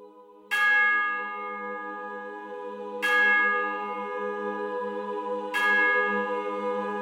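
A bell rings three times at a slow, steady pace, each strike bright and resonant with a long humming decay that overlaps the next. No voices, just the bell tolling clearly.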